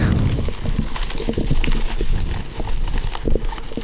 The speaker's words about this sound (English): Wow, it's a lot of crinkly things.